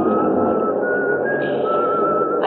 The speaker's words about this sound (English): The doors close behind me, and everybody in the car is rushing to find a seat. Over the noise, I hear some contented soul whistling